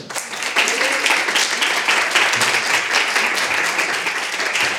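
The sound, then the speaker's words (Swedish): A steady burst of audience applause, many hands clapping at once in a dense, even wash of sound that stays loud throughout without pause. “En varm applåd.”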